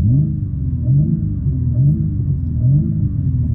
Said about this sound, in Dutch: En dan drukken we de startknop in. En de 3 liter 6 in lijn komt echt met een brul tot leven. 510 pk, 650 newtonmeter koppel.